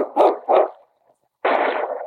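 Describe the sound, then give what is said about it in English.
A dog barks twice in quick succession, pauses briefly, then lets out a longer, drawn-out bark. The barking is fairly loud, with no one talking. “Your dog won't drown.”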